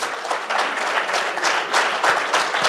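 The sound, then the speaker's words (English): A crowd applauds steadily after a speaker states that Puerto Rico is a territory and colony of the United States, a dense, even wash of many hands clapping at a strong level throughout, with no voices standing out. “I know you're applauding because in order to solve an issue, you have to accept it.”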